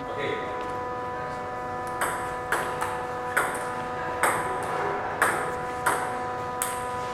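Table tennis ball clicking crisply back and forth between paddles as a parent and son play at a table beside a cat house in a facility, about ten sharp pocks in an uneven rally rhythm, over a steady tonal humming drone of air conditioning.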